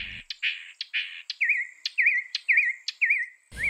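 bird, mockingbird song

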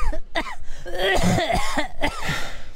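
human body sound, coughing

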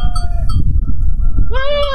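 animal, goat bleating

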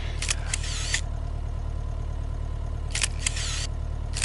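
tool, camera shutter clicking

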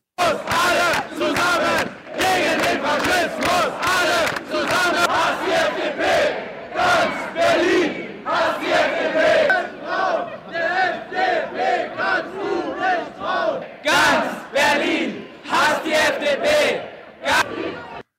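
crowd, demonstration crowd chanting slogans

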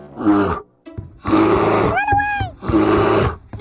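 sound effect, bear roar sound effect

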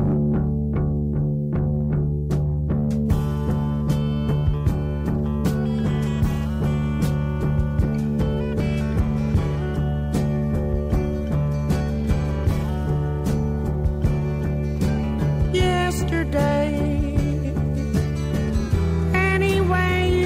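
song

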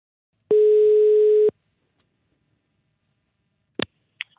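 signal or alarm, telephone ringing tone

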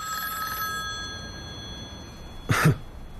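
signal or alarm, telephone ringing

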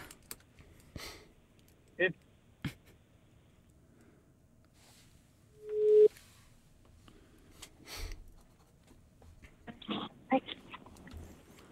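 signal or alarm, phone call ringing tone

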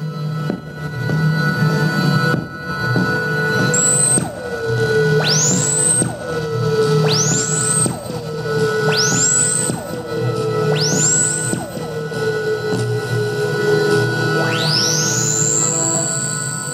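electronic music

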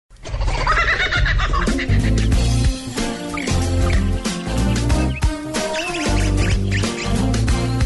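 bird, small birds chirping

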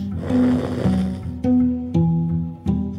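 human body sound, snoring

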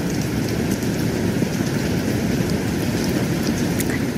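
nature, rain falling

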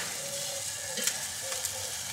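food or drink, vegetables sizzling

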